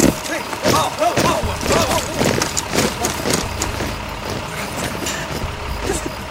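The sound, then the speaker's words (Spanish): A truck engine idles at an entrance with a steady low rumble, continuous throughout, while people shout and talk over it and a few sharp clanks cut through. “Ahora vamos a buscar esas lacras y los subimos a los camiones que están en la entrada.”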